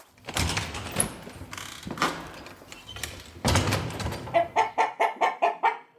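A chicken clucks repeatedly, with short rhythmic bursts building into a quick run of evenly spaced clucks near the end, over some scuffling background noise.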